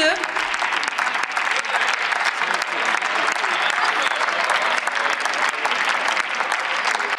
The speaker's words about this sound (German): Sie sehen schon, von wem Sie den meisten Beifall dafür bekommen, weil Sie machen nichts anderes, mit dieser Bemerkung als die Gesellschaft zu spalten und die AfD zu stärken.